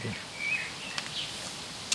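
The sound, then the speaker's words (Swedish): A faint bird whistle from a blackbird perched high up in a tree rises briefly out of steady wind noise on a windy day in Pildammsparken park in Malmö, Sweden, with a second short note soon after and soft rustling around it. “Vi ska helt enkelt i denna blåsiga dag se om vi hör några fåglar som vi kan få veta mer om.”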